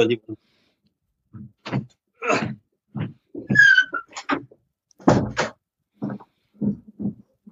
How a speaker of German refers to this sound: ich mache mal kurz die Tür hinter mir zu, ich bin gerade bei Gästen und die kommen gerade eben äh, jetzt gerade nach Hause